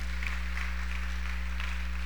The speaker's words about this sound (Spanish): Démosle un aplauso al Señor esta noche, por favor.